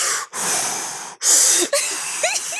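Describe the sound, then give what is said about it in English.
A voice imitates the heavy, strained breathing of a man lifting 30-pound weights: a few loud, forceful breaths in and out with short pauses, noisy, some ending in a rasping wheeze. “He's like, he's breathing hard, like,”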